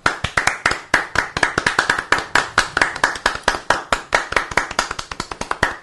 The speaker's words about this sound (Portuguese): Palmas pra você, viado. Vamos bater palmas